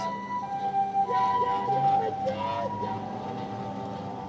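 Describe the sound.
An emergency vehicle siren wails steadily, its drawn-out tones rising and falling faintly over a low background hum, with indistinct voices murmuring underneath.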